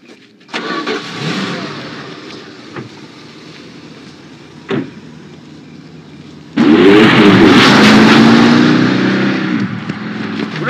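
A car engine cranks over, then roars to life with a loud surge and rising revs as the vehicle pulls away, staying steady to the end. No one speaks.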